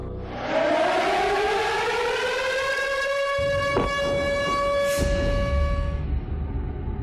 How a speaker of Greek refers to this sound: Πριν από λίγο είχαμε και πάλι τον ήχο των σιρήνων εδώ στην πόλη Λβίβ.